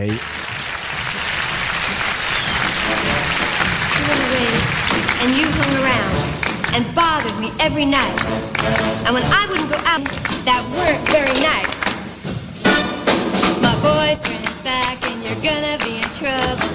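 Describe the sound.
A 1960s girl-group pop song intro plays, with steady sharp handclaps driving the rhythm and a female voice talking over the bright, full backing music.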